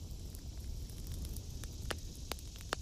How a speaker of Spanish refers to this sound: El fuego se apaga.